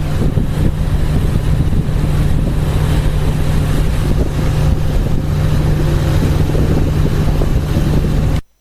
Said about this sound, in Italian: Continuiamo a farvi ascoltare il respiro del Savonarola nella sua corsa nel vento e sull'acqua.